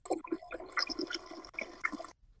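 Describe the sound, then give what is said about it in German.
A man urinating into a toilet: a steady, splashy trickle of liquid lasting about two seconds, with a few brief surges in the stream, then it stops. No one speaks. “Er pinkelt im Podcast”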